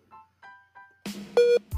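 A few short, faint electronic beeps in a steady pattern, followed by louder, harsher tones and buzzing, like a call-waiting signal cutting into a phone line.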